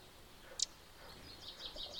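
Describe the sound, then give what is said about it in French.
Soft birdsong: a sharp chirp, then a run of quick high tweets against quiet outdoor ambience, with no one talking. “pas bien là, à bouquiner avec les oiseaux.”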